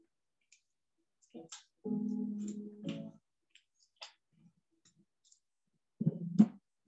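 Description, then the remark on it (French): A child rips adhesive tape away from paper in a raspy, crackling rip lasting about a second, with scattered small clicks before and after and a shorter rip near the end. “Maintenant, je demande à notre enfant, arrache ah, le scotch.”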